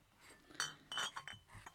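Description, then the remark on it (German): A glass is set down on a hard wooden workbench several times in quick succession while catching woodlice one after another, giving short clinks and knocks with brief pauses between them, fairly quiet and without any talking. “Ich erwischte sie mit einem Glas.”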